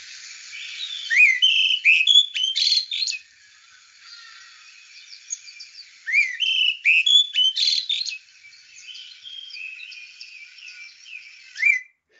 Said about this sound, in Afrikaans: die olyfluister. Olyfluisters is van die vir my een van die van die mees verruklike sangers.